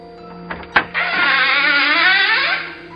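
A couple of sharp latch clicks as a door lock is undone, then a door creaks open in one long, wavering groan that rises and falls in pitch for nearly two seconds before fading out. No one speaks.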